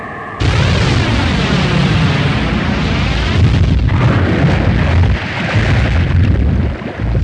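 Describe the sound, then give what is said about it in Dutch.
A sudden, loud roar of water rushing in through opened airlock doors begins after a brief quiet moment and surges steadily for several seconds, a dense churning wash with brief dips in force, and no voices. “Het water stroomt naar binnen.”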